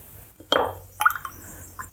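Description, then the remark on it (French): A few small drips of cherry-red liquid from a pipette land in glass containers of solutions at different pH, each a brief wet plop with a faint glassy ring, spaced irregularly against a quiet background. “Donc on met une pipette de ce qui est pour l'instant plutôt cerise écrasée. Voilà. Dans nos différents pH. Ça fait des, bulles, c'est normal.”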